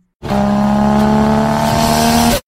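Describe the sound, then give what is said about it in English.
A loud car engine roars steadily alongside a sustained tire squeal for about two seconds, continuous, then cuts off abruptly, as a car is driven into police cars in a movie scene. No voices are heard. “Roman starts the car, it drives it into the other cop cars”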